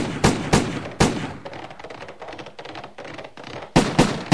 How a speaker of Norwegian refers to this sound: Jeg syns jeg kan høre skudd avfyrt mot svenskene som galopperer her foran oss. Vi finner i bøkene et par steder der det står nevnt at svenskene ble beskutt av skiløperavdelinger som lå i bakhold ved Sole skanse.